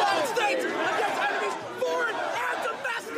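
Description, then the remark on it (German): An agitated mob forcing its way into the Capitol in Washington on 6 January, many voices talking and shouting over one another, a dense, continuous roar of overlapping speech with occasional raised cries, steady throughout. “Wir hören hier Stimmen und Geschrei aus jenem Mob der sich am 6.”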